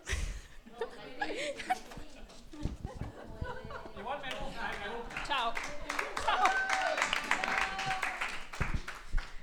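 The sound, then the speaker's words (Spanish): An audience at a screening of the film Crónicas de un exilio applauds the post-production team steadily for several seconds, a dense patter of many hands clapping, with scattered laughter and murmured chatter mixed in throughout. “Así que de vuelta, un aplauso.”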